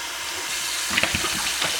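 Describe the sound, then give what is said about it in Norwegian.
Water pours steadily into an old, empty half-litre plastic soda bottle, being filled to store water, a hissing rush with a few gurgling glugs toward the end. No voices, just the filling sound alone. “Altså fylle, fylle den uh, fylle den med vann og legge den under senga f.eks., så har du jo vannlageret ditt.”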